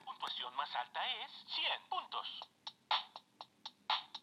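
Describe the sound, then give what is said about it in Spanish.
Electronic Bop It toy sounds: a warbling, tinny voice-like jingle followed by a quick, steady run of short beeping beats. “¿De qué es esto? Es un bopit, mira.”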